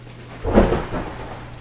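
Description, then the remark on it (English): A low thunder rumble swells and fades over steady rainfall, the storm not sounding sharp, with a faint constant hum beneath. “I am going to shut this stuff down and hand it over to Thor for the night.”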